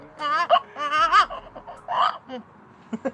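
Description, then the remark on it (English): A voice breaks into short, wavering wails that mimic a baby's cry, fairly loud, in a few choppy bursts over about three seconds, with hints of laughter mixed in. “That was a half a baby cry.”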